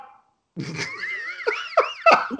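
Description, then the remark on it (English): A dog barks in a brief burst of high, wavering yelps and whines, a few sharp accents breaking through the drawn-out calls, with no one talking. “that was I... my dog.”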